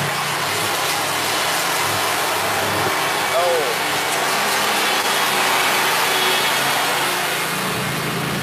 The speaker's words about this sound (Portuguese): o cara tá cortando a grama aqui.